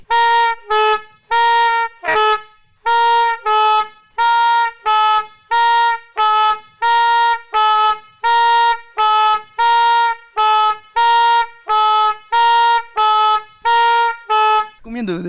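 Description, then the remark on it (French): A loud, nasal fire engine horn, operated by a foot pedal, blares in about twenty short, evenly repeated blasts, a steady honk-honk rhythm filling the whole stretch, with no talking. “Eh oui, là, le klaxon fonctionne au pied, c'est-à-dire qu'on actionne le, klaxon euh, à l'aide d'une pédale quoi, sur le klaxon.”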